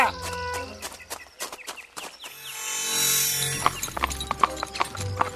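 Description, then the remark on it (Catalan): Hooves clip-clop in a steady, sharp rhythm as a horse-drawn cart, carrying passengers in the back on a five-hour ride to Prats de Molló, moves along, the beat fading briefly under a rushing, hissy rumble before the clopping returns. “Eh, cinc horetes a la part de darrere d'un carro no era la manera que m'esperava d'arribar fins aquí.”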